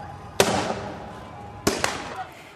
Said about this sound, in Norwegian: Studentene i Venezuelas hovedstad Caracas. Mange ungdommer har hjelmer og gassmasker. Og steiner suser mot opprørspolitiet, som svarer med varselskudd og vannkanoner.